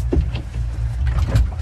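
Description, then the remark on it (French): A boat engine rumbles low and steady as the boat casts off from the pontoon and is briefly shifted into forward gear in short bursts, then back to neutral, with a few faint knocks and rattles over the continuous drone. “Et donc là, des petits coups de marche avant et on repasse au point mort.”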